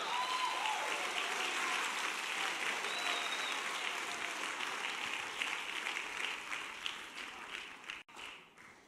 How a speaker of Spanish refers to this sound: Alguien diga aleluya. Aplauda fuerte.